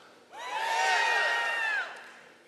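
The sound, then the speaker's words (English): An audience shouts out loudly all at once to say they have a refrigerator at home with any food in it, a dense burst of many overlapping voices that swells, holds for about a second and a half, then cuts off abruptly. “Now, if you have a refrigerator in your house that has anything at all, I don't care if it's just cheese and bologna, what, anything at all that if you had to eat it to survive, you could, just shout real loud.”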